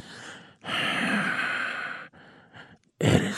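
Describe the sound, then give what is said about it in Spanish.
Heavy, huffing breaths come in several forceful bursts, a long drawn-out exhale followed by shorter snorting puffs, fairly loud with no talking. “usted ya se dio cuenta que yo soy el asesino porque estoy bufando.”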